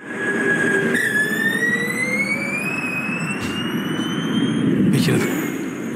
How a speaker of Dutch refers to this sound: het gaat over de Formule E, hè? dat is eh, dit geluid.